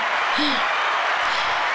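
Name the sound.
clapping hands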